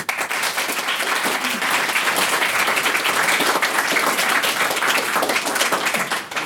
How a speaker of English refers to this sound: Uh, before we go to a vote, I'd just like to give them another round of applause.